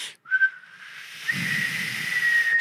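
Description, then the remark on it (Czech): A single breathy whistle through pursed lips during a face yoga exercise, with the cheeks held at the sides and the face pulled back: a short faint note, then a steady sustained tone with a lot of airy hiss mixed in, and no talking. “zatáhneme obličej směrem dozadu a uděláme foukneme hezky nebo pískneme,”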